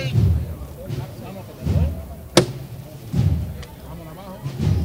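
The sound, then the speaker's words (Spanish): Deep, muffled procession drum beats of El Cachorro procession as it approaches the junction with the Ronda de Triana, thudding in slow, evenly spaced strokes about every second and a half, low and booming, with a sharp click partway through and faint voices underneath. “ronco tambor.”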